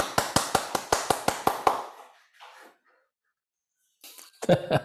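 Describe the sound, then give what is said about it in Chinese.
A steady run of about ten sharp, evenly spaced handclaps, then a short pause and a brief burst of a few more claps at the end. “大家先鼓掌吧。”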